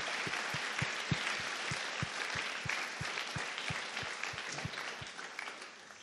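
Sustained applause from an audience, a dense wash of many hands clapping steadily, with a regular rhythmic low thump running beneath it like a beat.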